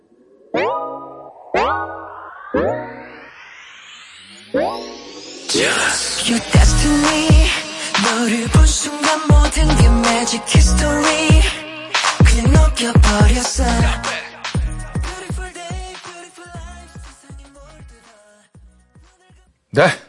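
A K-pop boy group track played on air, requested by viewers, plays loudly, opening with sharp stabs and rising synth sweeps before a dense, punchy beat and layered vocals kick in and drive on steadily.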